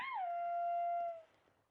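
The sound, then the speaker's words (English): Willa howls in the background: a single drawn-out howl, dipping slightly in pitch before holding a steady, clear tone for about a second, then fading. Fairly quiet, with no talking over it. “I just hear that in the background. Yeah, Willa's howling.”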